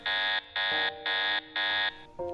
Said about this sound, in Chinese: 这已经不知道是第几次系统发出重新启动的声音了。